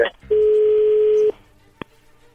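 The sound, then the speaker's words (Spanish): A phone call being placed: a couple of quick electronic beeps, then a loud, steady, mid-pitched tone held for about a second, followed by a single sharp click. “Bien, ahí se está marcando, no haga ruido, por favor.”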